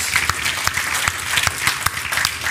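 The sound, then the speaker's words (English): A crowd applauds steadily for all the fathers on Father's Day, many hands clapping at once into a dense, crackling wash with sharper individual claps popping out now and then, no voices over it. “As a matter of fact, can we just all give a round of applause to all of the fathers?”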